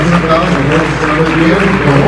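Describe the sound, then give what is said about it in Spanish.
A crowd breaks into loud, sustained applause, a dense steady clatter of clapping hands mixed with scattered voices and cheers, holding at full strength for a couple of seconds. “un aplauso muy fuerte a todos los que”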